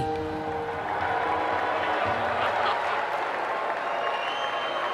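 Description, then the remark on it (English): A large crowd at the Republican National Convention boos loudly and steadily for the full five seconds as the Senate Majority Leader walks on stage. It is a dense, continuous roar of many voices with scattered shouts rising out of the mass. “They're booing him, in case you can't hear that.”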